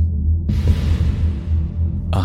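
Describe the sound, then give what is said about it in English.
A deep, steady mechanical hum throbs low, joined after a moment by a broad, airy whir like a large machine running at full power, on a dank, dark underground sublevel, with no voices present. “humming, throbbing sound like a sickly heartbeat hiding behind the whir of a great machine.”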